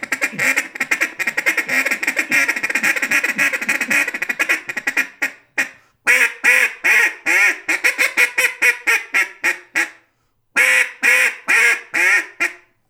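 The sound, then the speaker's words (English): A duck call blown in a rapid feed chuckle: fast, rolling clucks for several seconds, then shorter bursts of quacky chatter separated by brief pauses, loud with no talking. “I mean, you got a world class duck calling guy, and you ask him to blow a duck call, and he sticks the first note.”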